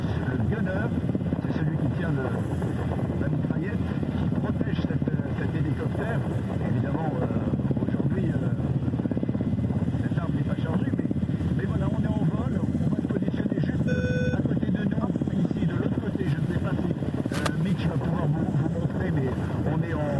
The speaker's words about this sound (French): à l'occasion des derniers préparatifs, eh bien, nous avons pu embarquer à bord d'un hélicoptère de l'armée française